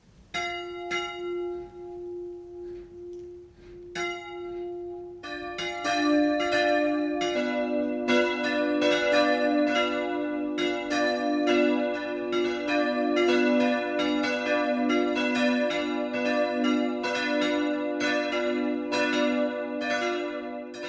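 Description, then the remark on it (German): The 12 o'clock midday church bells of Kirchenbuch, a hamlet of about 15 inhabitants in the Schwandorf district of Bavaria's Upper Palatinate, start with a lone bell for a few seconds before more join in a full, overlapping peal of rich, resonant tolls that keeps swinging steadily. No voices are heard. “Das Mittagsläuten kommt heute aus Kirchenbuch im Landkreis Schwandorf.”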